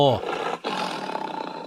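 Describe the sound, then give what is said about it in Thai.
A big cat, such as a tiger or lion, roars once, loud, opening with a short tonal growl that drops in pitch before spreading into a long, raspy, breathy rumble. “ลุงหมอขอยกตัวอย่างง่ายๆคือพวกสัตว์กินเนื้อขนาดใหญ่นะครับอย่างเช่นเสือโคร่งสิงโต”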